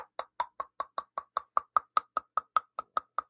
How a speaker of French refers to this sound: Je sais pas si tu m'entends. On claque des dents. Ouais, je t'entends, je t'entends. On claque des dents.